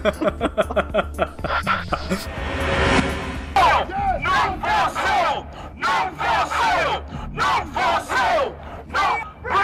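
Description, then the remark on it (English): A large crowd chants in unison at a protest rally demanding that the terrorist group Boko Haram bring back the kidnapped girls, with rhythmic bursts of many voices rising and falling in loud repeated phrases and a brief stretch of broad roaring noise partway through. “Crowds like these from New York to London rallied yesterday demanding that the terrorist group Boko Haram bring back our girls, imploring the Nigerian government to take some sort of action.”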